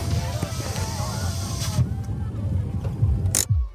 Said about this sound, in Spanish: Willow aparcó el coche en la parte trasera del cortijo